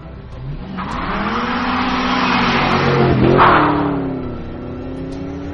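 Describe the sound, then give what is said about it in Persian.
A car engine revs up and pulls away, rising steadily in pitch and loudness, with a brief tire squeal near the peak before the engine note settles and recedes slightly, as the car drives out of the city. “سری ماشین گرفتم و از شهر خارج شدم”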